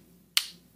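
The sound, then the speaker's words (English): A single sharp click as an Angry Audio magnetic connector snaps into place, with a brief bright decay over a faint low background hum. “the Angry Audio has uh, it has a mag. It's magnetic.”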